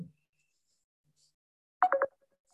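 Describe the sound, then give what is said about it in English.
A mobile phone rings during a class with a short, bright electronic melody, a single quick burst of a few tones amid quiet. “Uh, go get my phone. Answer the phone. Just answer the phone quickly.”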